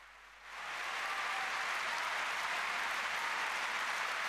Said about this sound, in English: And Oh, these two have so much deserved this applause.